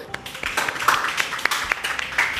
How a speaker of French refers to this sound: Je, je vous dis merci et puis je vous demande de vous applaudir.